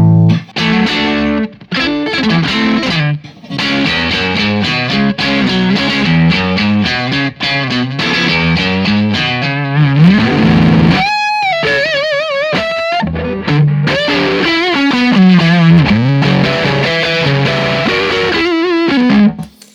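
Heavily distorted electric guitar played through a high-gain distortion pedal with the gain turned up extra, loud, continuous riffs with choppy chords and bending single notes, including a sustained high wailing note midway, all with a bright, fizzy edge and no talking.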